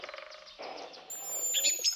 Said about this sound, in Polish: To jest jarząbek. Tak jest, to jest jarząbek, powiedział Ignacy i świetnie, że rozpoznałeś.